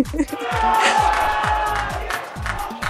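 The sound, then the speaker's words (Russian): A long applause sound effect is played: a loud, sustained burst of crowd applause and cheering, dense and steady, with a rhythmic low thumping pulsing underneath throughout. “Подожди, дайте я включу аплодисменты длинные.”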